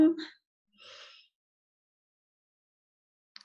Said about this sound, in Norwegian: Så vi puster inn mens vi teller til fem.